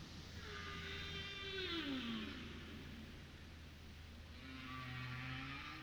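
Long, sliding whale calls rise and fall over a steady low rumble of ocean noise, with a few drawn-out moans overlapping in a continuous, fairly loud underwater recording.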